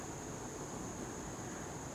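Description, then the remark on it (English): A steady, soft rush of flowing water from Tibbetts Brook, continuous and even, with a faint high thin tone running alongside it. No voices. “And to listen to the sound of Tibbetts brook”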